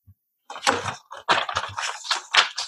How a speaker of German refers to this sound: Ich glaube, das Papier hat ja auch geraschelt